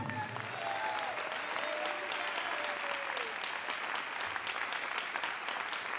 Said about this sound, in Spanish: ¿Cuánto lo creen? Si lo creen, denle el mejor aplauso al Señor.